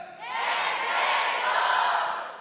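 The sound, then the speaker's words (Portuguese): A large audience reads the theme of a conference aloud together in unison after a count of three, a loud, sustained chorus of many voices lasting a couple of seconds before trailing off slightly. “Vamos juntos ler o tema dessa conferência no 3, vamos lá?”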